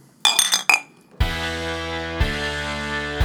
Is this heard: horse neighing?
no